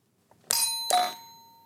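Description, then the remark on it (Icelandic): A bright two-note ding-dong chime, the team bell of the Regndróparnir (Raindrops) team in a quiz, rings out, the second tone following quickly after the first, with clear ringing overtones that linger and slowly fade away. No one speaks. “Regndróparnir og hvernig hljómar bjallan ykkar?”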